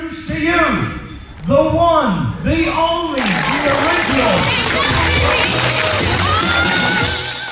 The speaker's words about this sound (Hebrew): בוא נקשיב שנייה לקטע הכניסה שלו, כשכולם מוחאים לו שם כפיים.